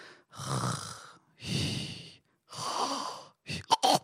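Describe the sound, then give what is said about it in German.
A person imitates snoring with three long, breathy rasping inhales and exhales, evenly spaced, followed by a couple of short snorting puffs, fairly quiet. “Und wenn man die Vokale rauslässt, dann klingt das fast wie Schnarchen.”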